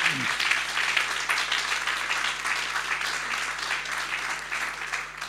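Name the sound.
audience applause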